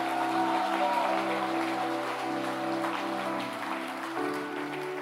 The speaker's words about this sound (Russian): Дайте огромные, огромные, огромные аплодисменты.